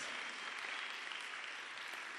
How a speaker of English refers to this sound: So clap your hands for what Jesus has done for us.